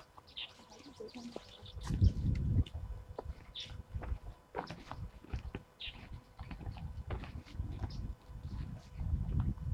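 Wild birds give a few brief, high chirps spaced several seconds apart, fairly faint over a steady, rushing low rumble that swells and fades throughout, recorded while birdwatching on the north bank of the Shahe (Sha River).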